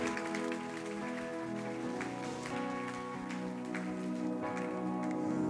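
A crowd claps steadily throughout, a dense, crackling wash of applause that holds at an even level, with sustained musical tones ringing underneath.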